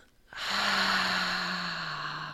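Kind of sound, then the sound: human body sound, exhaling through the mouth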